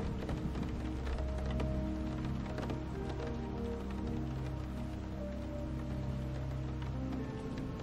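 Steady rain patters against a window, with scattered sharper drops tapping over a constant wash and a soft, sustained tonal hum running underneath.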